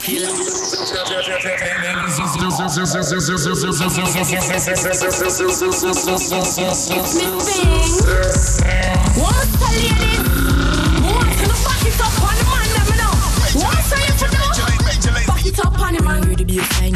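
An electronic party dance track opens with a descending synth sweep over a steady beat, then a heavy, pulsing bass line drops in around the midpoint and the mix grows louder and denser.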